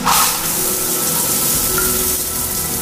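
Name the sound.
shower water running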